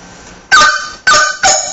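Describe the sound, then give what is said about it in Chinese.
Three loud bamboo flute notes played with the chopped-note (duoyin) technique: each note is blown first, then a finger presses down so the airflow and finger collide. Each starts with a sharp, percussive attack like a slap, in an uneven rhythm, bright and breathy, with no talking. “这种音叫剁音，它是相当于是你先先把音吹出来，然后再手指往往下一按，两个这个气流和手指撞在一起的时候产生那个冲击力，就像拍板儿，梆一下子，这种叫剁音。”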